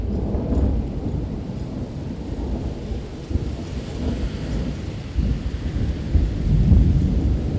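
A thunderstorm with deep, rolling thunder rumbling continuously and fairly loudly, a steady wash of rain hissing underneath, swelling toward the end, with no voices present.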